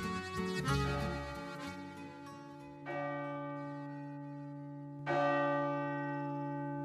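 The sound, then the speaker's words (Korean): A large bell tolls three times at slow, even intervals, heard from beyond a mountain, each strike blooming into a long, humming resonance that lingers and fades softly, with no voices present. “그래 종소리는 우리가 종을 쳐다봐야만 아니라 말 그대로 소리니까 이 산 너머에서 이렇게 들려오잖아요 은은하게”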